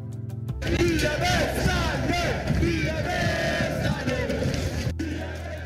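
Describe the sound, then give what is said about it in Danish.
A large crowd of Brøndby football fans roars and chants, celebrating the Danish Superliga championship, their first in 16 years, won with a 2-0 home win over FC Nordsjælland. A loud, continuous wall of cheering voices with rising shouts, sustained for several seconds before dropping off abruptly. “Sådan her lyder det, når man øh, er blevet øh, Danmarksmester, når man har vundet Superligaen øh, for første gang i 16 år.”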